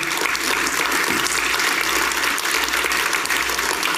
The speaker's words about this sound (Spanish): Amén. Dale esa ofrenda de palmas al Señor.